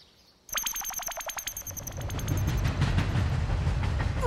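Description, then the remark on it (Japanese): A rapid electric bell rings briefly, then the interior rumble of a train travelling from Berlin to Paris builds, with a low steady roar and rhythmic clacking of wheels over the rails, fairly loud. “おっ列車の車内に来たベルリンからパリに向かう列車よ”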